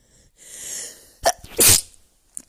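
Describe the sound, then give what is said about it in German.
A person sneezes once, loud, from dust and a cat allergy: a drawn-in breath building up, then a sharp explosive burst with a brief airy tail. No talking. “Sorry, ich musste niesen weil hier ist sehr viel Staub und wie gesagt die Katze und das macht mich sehr allergisch.”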